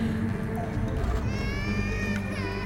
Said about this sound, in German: Hören Sie das auch? Was? Die Schleuse? Na, da schreit doch ein Baby. Hören Sie das nicht? Nein. Ein Baby. Wo kommt das her?